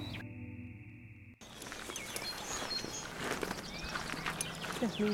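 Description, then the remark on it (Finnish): Birds sing in a forest, scattered chirps and short trills ringing over a steady outdoor hiss with faint rustling, after a brief muffled, hum-like opening second. “Ihan uskomaton tämä linnun liverys pitkästä niin, no, aikaa.”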